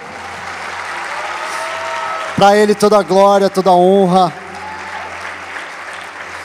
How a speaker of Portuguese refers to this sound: A salva de palmas para Jesus, por favor.